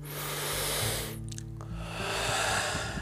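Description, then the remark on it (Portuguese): A long, airy deep breath drawn in, a brief pause, then a slow, steady exhale, both with a broad rushing hiss and no talking. “E agora você toma outra respiração profunda.”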